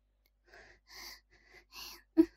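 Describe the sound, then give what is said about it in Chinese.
Two people breathing in a quiet classroom: several soft, airy breaths drawn in an uneven rhythm, ending with one sharper, louder catch of breath. No one speaks. “一时，教室里安静的只有两人的呼吸声”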